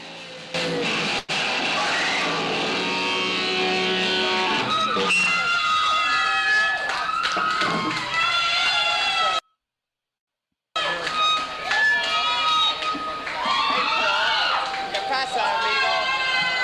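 A loud, raw 1983 live band recording, the performer about 23 years old, with shouted or sung vocals over dense, distorted instruments and crowd noise, cutting to silence for about a second midway before resuming.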